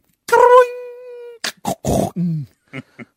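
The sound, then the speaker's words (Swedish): A voice imitates a car engine breaking down as the car stops abruptly in the middle of a curve: a long strained whine sliding off, then a few sputtering, choking bursts and small pops fading out. Fairly loud, no words spoken. “Men mitt i kurvan så bara tvärnita hela bilen och det låter typ”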